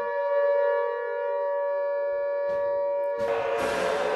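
A loud, steady alarm siren wails continuously in a prison as the automatic doors open, its sustained tone holding throughout, while harsh noise bursts in near the end and swells into a roaring rush beneath it.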